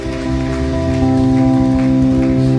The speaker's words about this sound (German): Und ich will ihn jetzt auf die Bühne holen und ich will, dass wir nochmal einen richtig fetten Applaus geben